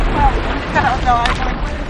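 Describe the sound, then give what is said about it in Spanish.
Deep, rolling thunder rumbles steadily from a tremendous storm drawing closer, a heavy low boom filling the background while faint voices rise briefly over it. “Dale, la tremenda tormenta que viene por ahí.”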